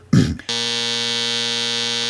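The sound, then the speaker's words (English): A loud, harsh buzzer blares continuously for nearly two seconds after a brief burst of noise, its steady droning tone rich in harsh overtones, like a game-show wrong-answer buzzer. “A bell means Cortana is very good on the iPhone, and a buzzer is, well, we can judge what the buzzer entails.”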